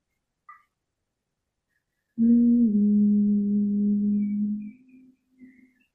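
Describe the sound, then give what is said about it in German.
A single low hummed note swells in after a short silence, holds steady for about two seconds, then fades away softly, with no one talking. “Und wenn du möchtest, kannst du auch ganz sanft einfach diesen Ton mal nur summen.”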